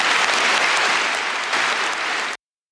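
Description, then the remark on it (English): Loud, sustained applause from a large crowd in a packed hall, interrupting a political speech calling for a citizens' assembly on unity and referendums, a dense steady wash of many hands clapping at once that cuts off abruptly after a couple of seconds, with no voices audible. “a very strong statement there, interrupted by a lot of applause.”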